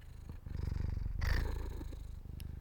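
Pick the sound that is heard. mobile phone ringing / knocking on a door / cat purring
cat purring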